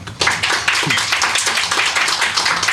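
A burst of audience applause, many hands clapping in a dense, steady crackle that starts abruptly and holds at a fairly loud level throughout, with no one speaking over it.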